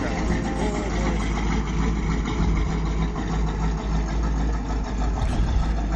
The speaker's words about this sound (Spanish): Y bueno, tenemos todo cargado en la camioneta. y bueno, la ponemos en marcha a calentar un poquito.